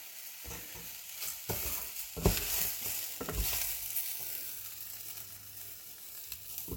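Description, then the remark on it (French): Rice, starting to dry out, sizzles steadily in a hot pan while a utensil stirs and scrapes through it in several quick, uneven strokes, with no one talking. “Du coup, là, je remue, je remue, je remue.”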